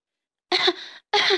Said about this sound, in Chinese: 卡门被烟呛得直咳嗽。